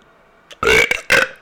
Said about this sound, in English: oh. Oh my god. I burped. And like I, I like I barfed in my mouth.